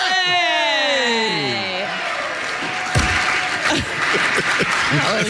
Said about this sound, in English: we, hey, the Oscar, the Oscar telecast has nothing on us. this crowd is so fantastic. The stupidest stuff, man. it does not take much for them to applaud.